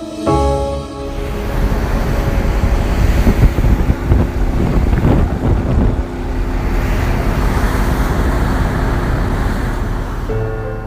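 Strong wind buffets the microphone aboard a Doctors Without Borders migrant search-and-rescue ship on the Mediterranean Sea, a constant low roar with engine hum and water rushing beneath, gusting louder in the middle. No voices.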